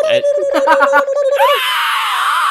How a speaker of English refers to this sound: Did we want to do like a victory screech?